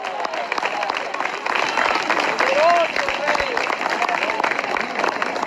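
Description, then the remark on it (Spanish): Sustained applause from an audience for Christ during a sermon, a dense steady wash of many hands clapping for several seconds, with voices calling out and cheering over it. “después fuerte ese aplauso al Cristo de la gloria.”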